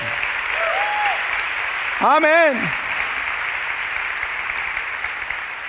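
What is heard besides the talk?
audience applause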